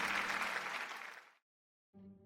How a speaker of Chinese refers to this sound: 各位先生、女士，欢迎来到异想天开拍卖会。今晚将拍卖出十三件艺术品，让我们用最热烈的掌声来迎接最美好的一晚吧。